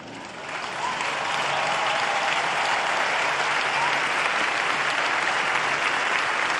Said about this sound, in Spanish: A ellos este aplauso del corazón por su gran servicio.